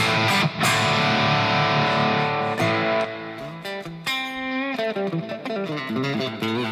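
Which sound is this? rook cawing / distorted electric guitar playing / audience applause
distorted electric guitar playing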